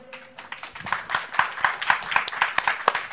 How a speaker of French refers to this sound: on peut applaudir